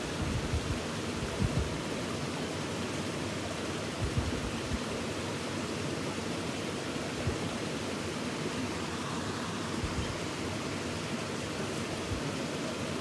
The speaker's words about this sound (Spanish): déjate acompañar por el sonido del río para hacer contacto con el fluir que eres.